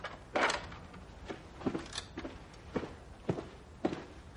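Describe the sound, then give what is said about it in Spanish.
Footsteps walking toward the far end of a corridor in a fortress at an unhurried, slightly uneven pace, about six distinct steps with crisp, scuffing impacts against a quiet background hiss; no voices. “John entrega su espada y va hacia el fondo.”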